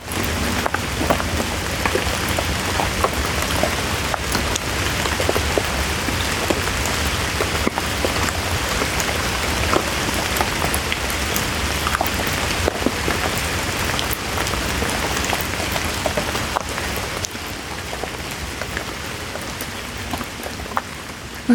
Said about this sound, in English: With only the sounds of the rain.